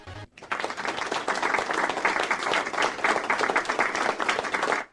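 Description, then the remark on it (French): A burst of sustained crowd applause played as a radio sound effect, dense and fairly loud, starting abruptly after a brief pause and cutting off sharply near the end, with no voices over it. “J'envoie d'abord les applauses pour tous ceux qui n'auront pas le courage d'écouter cette émission en direct.”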